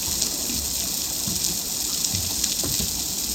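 Snapping shrimp on a shallow coral reef picked up by an underwater hydrophone beside a boat and played through a loudspeaker: a dense, steady crackling hiss made of countless tiny clicks, with a few sharper pops standing out. No one speaks.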